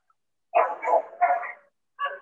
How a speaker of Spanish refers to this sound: son nuestros amigos perrunos siempre de la casa